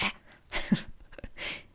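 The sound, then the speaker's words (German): A voice imitates dogs growling and snapping at each other: a few short, rough, breathy snarls in quick succession, moderately loud, with no other talk. “hörte ich schon so ein, so ein Geknurren äh, Knurren und so an, Ankeifen unter Hunden.”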